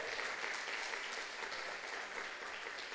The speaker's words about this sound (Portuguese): Dá uma salva de palmas a Jesus porque ele é bom.